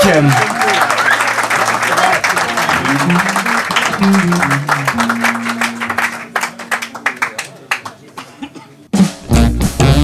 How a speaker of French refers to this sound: ils sont déjà prêts sur la scène du Millennium, les …, sous les applaudissements du public